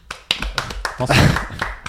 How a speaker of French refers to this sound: On peut applaudir. Applaudissons avec vos mains, allez-y.